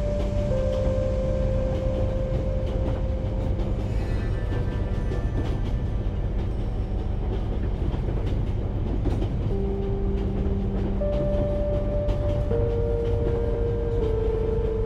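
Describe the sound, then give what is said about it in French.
A continuous low rumble of a train in motion, steady and enveloping, with faint rhythmic rattling and a few sustained tonal hums drifting over the noise. No one speaks. “le bruit de votre respiration se mêle au chuchotement régulier du train qui enveloppe l'espace autour de vous.”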